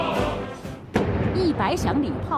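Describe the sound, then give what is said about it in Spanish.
A single loud, deep cannon blast booms out about a second in, preceded by a low rumble, with a person's voice talking over it throughout. It is part of a 100-gun salute at Tiananmen Square, Beijing, as the flag is raised at the ceremony for the 100th anniversary of the Chinese Communist Party. “100 cañonazos, se iza la bandera frente a la puerta de Tiananmen.”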